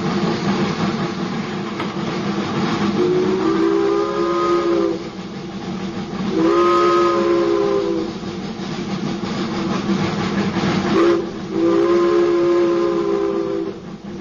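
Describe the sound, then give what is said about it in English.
A steam train whistle sounds three times in long, sustained blasts with harmonic tones, over the steady rumble and chuff of a running locomotive. No one speaks. “The nostalgia of the whistle of those powerful beasts.”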